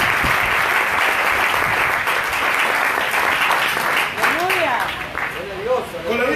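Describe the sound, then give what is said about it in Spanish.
An audience applauds, a dense, sustained wash of clapping that fills the whole clip, with some voices rising over it and cheering toward the end. “Démosle un aplauso grande al Padre, al Hijo y”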